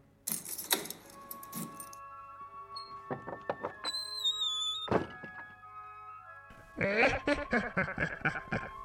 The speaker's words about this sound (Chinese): 什么嘛？这个怎么断掉了？我来打开门锁，看看奥德特还在不在。